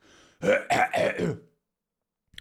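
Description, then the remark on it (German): A person clears their throat in a few quick, rough bursts lasting about a second, fairly loud, followed by silence with a faint click at the end. “Oh, sorry, ich muss gerade mal äh, räuspern.”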